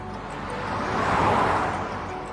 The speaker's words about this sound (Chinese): 汽车在山坡和洼谷间飞驰。